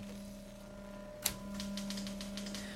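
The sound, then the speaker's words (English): Typewriter keys clack away, starting with one sharp strike and followed by a quick, uneven run of lighter taps over a low steady electrical hum. “One learns not to blab about all this except to yourself or the typewriter keys, who tell no one until they get brave and crawl off onto the printed page.”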